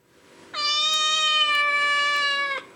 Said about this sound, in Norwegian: Men så En katt